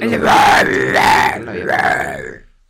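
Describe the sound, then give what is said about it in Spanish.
A voice imitates a metal rock growl: three loud, raspy guttural bursts in a steady rhythm, with a gritty distorted tone and brief gaps between them. “Yo creo que me tendrás que poner que sí, rock metálico así.”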